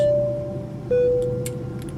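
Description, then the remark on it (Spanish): A steady, broad engine rumble fills an airplane cabin as the plane lands after a bumpy flight, with two clear electronic chime tones ringing out about a second apart and a few faint clinks. “El avión se ha movido mucho, pero ha aterrizado.”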